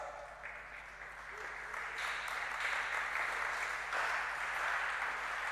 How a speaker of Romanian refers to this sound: Și acum biserica putea să spună amin tare și să bate din palme pentru el, fiindcă bucuria aceasta pe care el ți-a dat-o este veșnică.